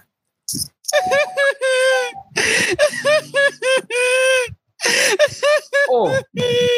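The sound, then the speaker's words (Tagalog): A person cries and whimpers with a string of wavering, high-pitched sobs broken by short breathy gasps, fairly loud and continuous without clear words. “Ba't ka umiiyak”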